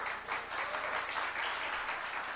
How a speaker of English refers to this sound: I need a round of applause, I think, for that.